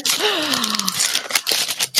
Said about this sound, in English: So here we go. I'm going to watch you open it. okay. Ripping that paper.